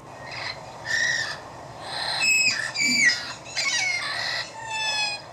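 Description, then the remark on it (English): A red-crowned parrot duet by a male and female pair, slowed to half speed: the two birds trade drawn-out, harmonic squawks and whistles in a steady back-and-forth, fairly loud, with no talking. “Now, here's the same recording at half speed.”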